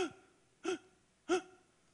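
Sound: imitated labored gasping breaths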